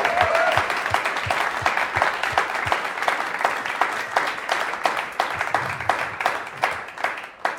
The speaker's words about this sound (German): Deswegen ICF Berlin an dieser Stelle Gebt euch selbst und allen Mitarbeitern einfach mal einen fetten Applaus. Come on!